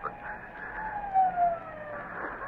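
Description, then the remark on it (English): A police siren wails as the police close in, its steady rising-and-falling tone holding over faint road rumble, with no one speaking. “The police are closing in, Doctor.”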